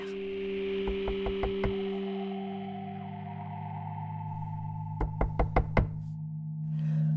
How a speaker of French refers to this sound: Le soir même, il frappait à la porte de l'enfer.